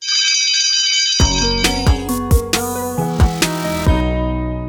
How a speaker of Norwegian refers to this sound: Men hysj, er det skoleklokka som ringer?